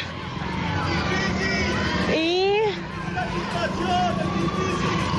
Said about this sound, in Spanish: Y, luego aquí siguen que gritan, que gritan al fondo